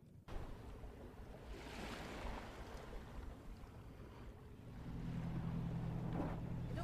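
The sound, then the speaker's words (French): Ambience aboard a schooner sailing in the open ocean in the great plastic garbage patch: a steady rush of wind and water against the hull, with a low droning hum swelling in the final seconds. No one speaks. “Je vous propose donc tout de suite d'embarquer à bord de Tara pour le voir de plus près.”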